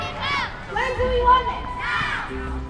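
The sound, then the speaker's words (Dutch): A group of children stand around the wooden Greenpeace Neptune statue, shouting together for the introduction of a bottle deposit scheme. Their high-pitched voices overlap in loud, rising bursts that come in waves over a steady low rumble. “Een groep kinderen staat om het houten Greenpeace Neptunusbeeld heen en schreeuwt om de invoering van statiegeld.”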